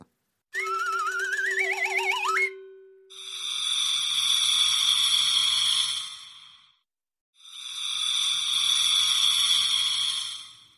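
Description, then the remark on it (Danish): Electronic warbling beeps and a rising chirp give way to two long, loud, hissing breaths of an astronaut breathing up in space, muffled as if through a helmet, with a short pause between them. “Det er lyden af en astronaut, der trækker vejret op i rummet.”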